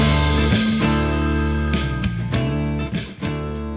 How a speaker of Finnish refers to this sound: Tämä oli ihan kummallinen toi puhelin. Siihen ei tullut mitään tuohon ruutuun. Siis kun se soi, ja. niin ei ollut mitään, mitä olisi voinut painaa.